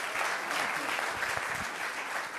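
An audience claps steadily, a dense wash of many hands blending into a continuous, fairly loud patter with no pauses across the whole stretch.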